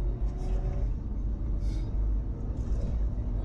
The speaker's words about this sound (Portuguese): Você tem aqui o câmbio Tiptronic, né? troca, a troca do carro não é tão rápida, né? a redução é mais rápida do que a troca. Você subir a marcha. Ó.